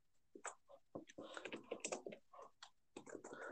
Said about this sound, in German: Man hört ähm, dich übrigens gerade tippen, gell?